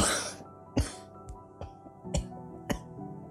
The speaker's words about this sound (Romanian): Vorbele ei au fost întrerupte de o criză de tuse. Ești bine, dragă?" am întrebat. Ea dădu din cap trăgându-și glasul.